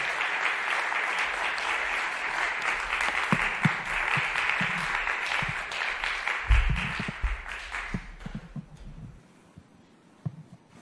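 A crowd applauds steadily, a dense wash of many hands clapping that holds strong for several seconds, then gradually thins and fades out near the end, with a few scattered claps remaining.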